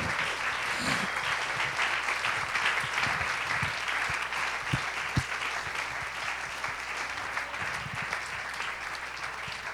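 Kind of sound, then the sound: crowd, audience applause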